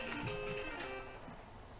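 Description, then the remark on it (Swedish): A fan heater whirs steadily, its mechanical hum carrying odd wavering tones and a slightly uneven, rattly edge, with no voices over it. “Vi har ju en värmefläkt som låter konstigt.”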